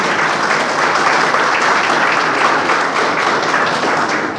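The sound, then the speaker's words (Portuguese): A steady round of applause from a crowd at a Brazilian military ceremony for Major Fábio Cristiano Tafarel, subcommander of the Fortaleza de Itaipu, dense overlapping claps holding an even loudness throughout before easing slightly at the end. “Subcomandante da Fortaleza de Itaipu, senhor Major Fábio Cristiano Tafarel, uma salva de palmas para o Tafarel.”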